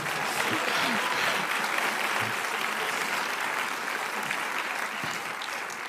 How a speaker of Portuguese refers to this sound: deu para Jesus uma forte salva de palmas.